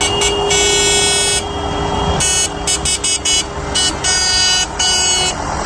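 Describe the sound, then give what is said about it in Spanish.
Tractor horns honk over and over in loud, overlapping blasts, some long and held, others short and choppy, above a steady low engine rumble with no talking, at a farmers' tractor protest in the streets of León, Spain, on a Tuesday. “aunque en León este ha sido este martes el sonido en las calles.”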